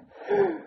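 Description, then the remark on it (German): A single sneeze: a short breathy intake that rises into a brief, voiced burst with a slight tonal edge, then fades. Nobody talks over it. “Gesundheit.”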